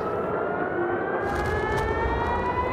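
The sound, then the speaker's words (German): An Israeli air raid siren wails steadily just after 6 p.m. at the Damascus Gate, its tone rising slowly and holding loud over a rushing outdoor background, with no one speaking. “Ich war zu diesem Zeitpunkt am Damaskustor und es war tatsächlich so, dass um kurz nach 18 Uhr heulten die Sirenen des israelischen Luftalarms los.”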